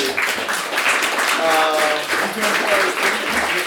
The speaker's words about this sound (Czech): Prosím o potlesk, když jste tady.